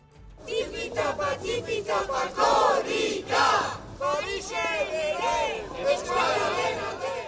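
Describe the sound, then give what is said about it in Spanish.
A crowd of Corrica relay runners chants and shouts together in a street in Paris, having run 4 kilometres to the Euskal Echea, with loud rhythmic group voices rising and falling continuously and general crowd noise underneath. “Tipitapa, tipitapa, han recorrido 4 kilómetros en la capital gala hasta llegar a la Euskal Echea.”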